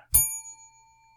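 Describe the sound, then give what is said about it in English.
A single bright bell, used by a host to keep a panel in order, is struck once, loud, its clear metallic tone ringing on and slowly fading over about a second with no voices. “To help me control my rowdy panel of recidivists and reprobates, I will employ what I have called the inappropriate bell. An example of this would be”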